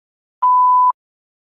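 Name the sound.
answering machine beep tone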